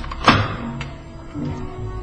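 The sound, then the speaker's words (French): A door is eased shut, ending in one soft, muffled thunk as the latch catches, then a low mechanical hum carries on underneath with no voices. “Ah, vous me demandez pourquoi je referme soigneusement Oui, et d'ailleurs, pourquoi vous fermez la porte”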